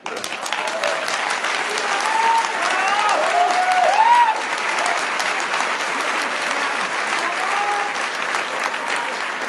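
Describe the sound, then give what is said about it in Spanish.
A large crowd at a packed, organized event in a plaza applauds steadily and loudly for the whole stretch, a dense wash of clapping with a few whistles and cheers rising above it near the start. “Nunca había estado en una plaza donde hubiera tanta gente y tan organizado.”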